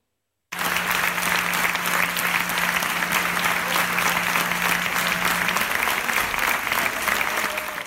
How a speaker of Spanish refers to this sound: Aplausos, aplausos y más aplausos